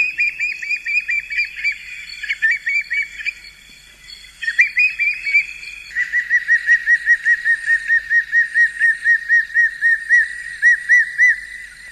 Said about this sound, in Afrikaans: Die dikkop is natuurlik 'n alombekende standvoel en klink so.